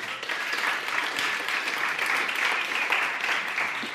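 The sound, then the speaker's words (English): A crowd applauds steadily, a dense, even wash of many hands clapping that stays loud and sustained throughout with no pauses and no voices on top. “Well, let's hear it for”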